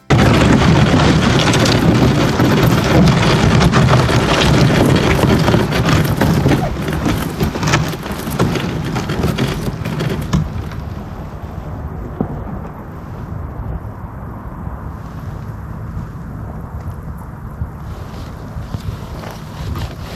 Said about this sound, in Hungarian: Itt helyenként jégtakarót is találtunk a part mentén, úgyhogy jégtöröztünk egy kicsit. Ezen a ponton bejátszom nektek a kamera hangját, hogy halljátok a jég kellemes ropogását.